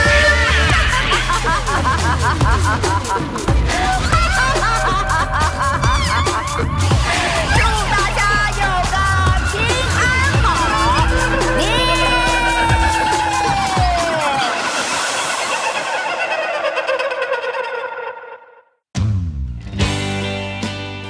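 A rock band song plays at full volume: pounding low drums, dense guitars and a gliding melodic line, fading out near the end before a brief loud burst of music returns.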